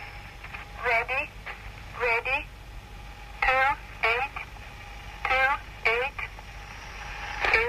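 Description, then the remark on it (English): Crackly shortwave radio static hisses steadily beneath a thin, tinny numbers-station voice reciting numbers in short, evenly spaced bursts, with a faint constant tone humming through the noise. “Uh, soon, right on time, a voice cuts through the static and sounds like this.”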